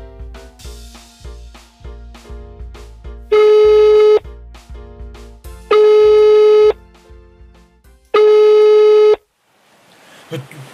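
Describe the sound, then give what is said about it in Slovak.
A telephone rings three times, each ring a loud, steady electronic tone lasting about a second with a short pause between, over a rhythmic musical backing that fades out at the end. “Toto nie je možné, ten telefon zvoní vždy v tú najnevhodnejšiu dobu.”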